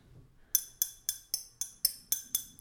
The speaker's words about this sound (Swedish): Så jag tänkte faktiskt eh, presentera en liten tanke. Jag ska oh. plinga i ett litet glas.